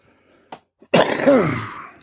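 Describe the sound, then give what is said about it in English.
A single loud cough bursts out after a couple of small catches of breath, then trails off into a rough, throaty rasp lasting about a second. “Just in the way that I coughed, I cast out germs from my body for healing in the same way as we repent.”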